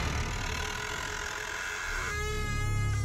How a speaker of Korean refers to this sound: 결국 문이 덜컥거리면서 어. 열린 그때